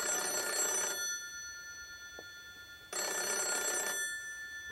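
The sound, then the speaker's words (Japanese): A black rotary telephone in the empty station office of an old, unstaffed train station rings in two long bursts of a fast, rattling bell, about a second each with a pause between, in an otherwise quiet space with a faint hum. “謎の着信”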